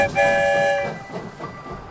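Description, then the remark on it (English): A train horn sounds a short chord, then gives way to the steady rumble of a train rolling along the tracks, with faint rhythmic clacks from the wheels. “It's night where we've arrived, and we're in a city rolling down the tracks while everyone sleeps well, not everyone.”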